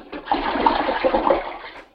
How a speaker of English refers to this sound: He flushed on that one. He wasted that water. You know he's going to pee again before the night's over. Why did he waste that couple of gallons? We're on that. It's, he's on city water. He don't even care.